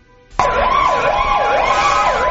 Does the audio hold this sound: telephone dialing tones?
no